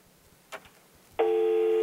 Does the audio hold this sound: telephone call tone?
yes